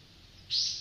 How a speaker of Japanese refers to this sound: 毎年春先になるとうちの近くにウグイスが来るんですねホウホケキョって鳴いてるんですけどこれがいつも初めのうちは下手なんですよ